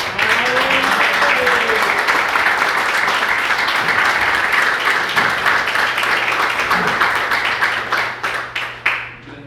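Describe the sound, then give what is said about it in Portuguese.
An audience in a church bursts into sustained applause for the Lord, dense and steady for several seconds, then thins into scattered individual claps before fading out. Faint voices murmur underneath the clapping. “e obrigado e as palmas ao Senhor.”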